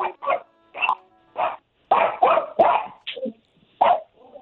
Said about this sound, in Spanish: Eh, permítame un segundito. Callen al perro, por favor.